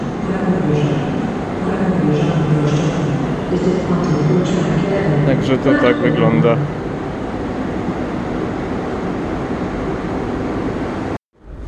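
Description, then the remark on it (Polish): Busy platform ambience at Kraków Główny railway station in Kraków, Poland: a steady wash of crowd murmur and low rumble, with brief clanking and metallic bursts midway and a voice speaking briefly over it before the sound cuts off. “A to jest Kraków Główny.”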